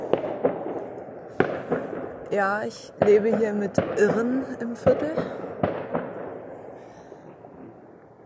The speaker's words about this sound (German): Ich glaube, das ist ein Feuerwerk, ehrlich gesagt. Aber es ist extrem krank, es jetzt um diese Uhrzeit zu machen, zumal es auch ein Wochentag ist. Und ja, sind keine China-Böller, würde ich sagen. Und es ist auch keine Schreckschusspistole,